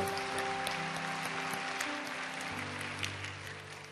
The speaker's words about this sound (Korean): 우리의 예배를 받으시는 하나님께 감사 영광의 박수 올려드리겠습니다. 할렐루야.